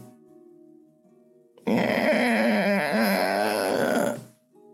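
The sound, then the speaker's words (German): A loud, drawn-out creak of heavy gates swinging open groans and wavers for about two and a half seconds after a quiet hum, then fades away. “Ähm, in diesem Moment hört ihr ein Knarren.”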